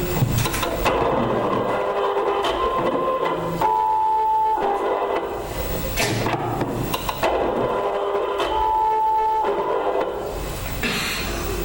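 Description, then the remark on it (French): An Apple StyleWriter II desktop inkjet printer runs, its carriage whirring and clattering in repeating passes every few seconds, with a thin mechanical whine over a steady rattling hum. “Une imprimante Apple Steel Writer 2.”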